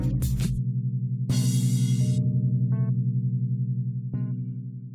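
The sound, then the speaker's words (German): A school gong is struck, and its deep, throbbing ring hangs on with a wavering, warbly shimmer. A couple of lighter metallic hits sound over the lingering tone, with no talking. “So, und jetzt beenden wir den Song. Wie in der Schule üblich, natürlich mit einem Gong.”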